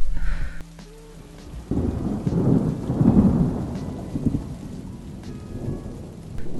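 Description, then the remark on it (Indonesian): Under a dark sky, heavy rain pours steadily while deep thunder rumbles and rolls in long swelling waves, building after a brief lull and lingering low and loud throughout. “Hujan turun dengan deras disertai petir yang beberapa kali terdengar menggelegar.”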